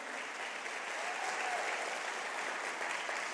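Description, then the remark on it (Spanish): Steady applause from an audience fills the whole stretch, a dense wash of many hands clapping at a constant, moderate level with no pauses and no voices standing out. “yo habría aplaudido más fuerte.”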